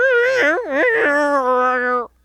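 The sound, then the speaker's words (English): A person's voice mimics a billy goat's bleat, a single wavering, nasal cry that wobbles in pitch for about two seconds before cutting off abruptly, loud. “in what is clearly not actual billy goat or animal noises like a human recorded those noises you ever met a billy goat that sure sound like that to me bud Yes, I have, and they don't sound like that.”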